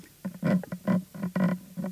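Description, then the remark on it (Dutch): A person imitates a pig with a quick run of close, throaty grunts and oinks, about five rhythmic bursts in under two seconds, with no other talking. “En dan de, hoe zit hij De, de, de varken natuurlijk.”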